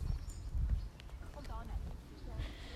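Horse hooves clop along at an easy walking rhythm, fairly loud, over a steady low rumble of outdoor noise, as the horse is ridden out.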